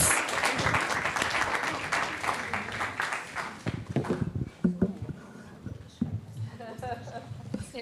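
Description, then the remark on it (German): A church audience at a service breaks into loud, dense applause as a speaker is welcomed onto the stage, holding steady for a few seconds, then thinning out into scattered claps as voices begin to come through. “Ihr dürft ihr einen großen Applaus geben.”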